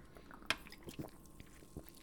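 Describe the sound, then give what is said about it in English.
Quiet handling of a sparkling water can: a few sharp clicks and light crinkly taps at irregular intervals, the last one the brightest, with no talking. “by the way, I know here the can. That's the sparkling water.”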